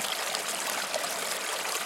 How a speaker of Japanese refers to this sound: リラックスできたら流れる川の音に耳を傾けましょう